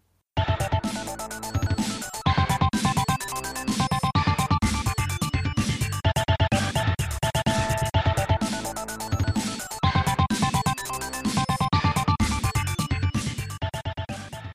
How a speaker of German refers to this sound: Das, was ich mir tatsächlich immer wirklich gerne anhöre, ist ein kurzer Loop, der ganz am Anfang kommt, wenn du deinen Charakter auswählst. Das klingt so.